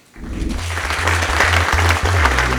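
Steady applause from an audience, a dense wash of clapping that starts abruptly and holds at a fairly loud, even level throughout, with a low rumble underneath.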